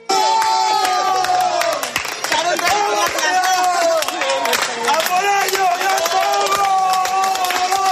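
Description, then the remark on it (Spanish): Ten children with rare neurological diseases from the Guerreros Púrpura association shout and cheer together on arriving at the cathedral after finishing the Camino de Santiago: a continuous, loud, high-pitched clamor, many voices overlapping without pause throughout. “Esto que escuchas son los gritos de emoción de 10 niños, todos ellos con enfermedades raras neurológicas que pertenecen a la asociación Guerreros Púrpura y que junto con sus familiares y un equipo médico han terminado el Camino de Santiago.”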